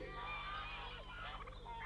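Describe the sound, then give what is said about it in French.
A flock of wild geese calls in the air in a steady, overlapping chorus of honks and cackles, loud, over a low background rumble with no one speaking. “Les oies sauvages ont-elles donc changé de langage”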